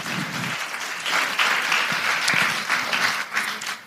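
An audience breaks into sustained applause, a dense, steady wash of many hands clapping for about four seconds with no voices standing out.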